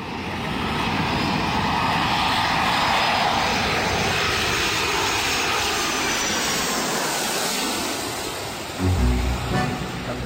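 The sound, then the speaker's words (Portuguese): A steady, loud airplane engine roars for most of the stretch, a broad rushing drone that holds level, then a heavier low rumble surges briefly near the end, on a flight from Brazil to England. No one speaks. “Aí pegamos um avião, eu, o Miller e o diretor financeiro do São Paulo.”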